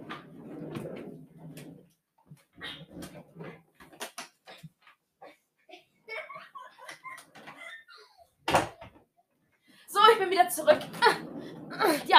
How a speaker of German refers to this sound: Mach die Tür zu, bitte. Warte, ich mach sie zu.